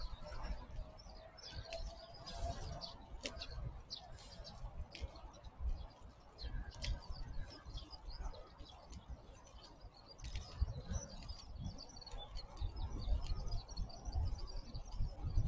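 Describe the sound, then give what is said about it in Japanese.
A skylark chirps and trills in quick, high, busy bursts throughout, over a steady low rumble of background noise, with no one speaking. “ひばりがぴよぴよ泣いておしゃべりしております。”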